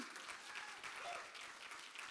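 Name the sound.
audience clapping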